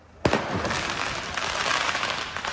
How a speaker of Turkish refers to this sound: Öfkeli grup polislere taş ve havai fişeklerle saldırdı.